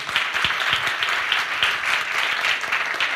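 A crowd applauds steadily, many hands clapping in a dense, continuous patter that stays fairly loud and even throughout, with no one speaking.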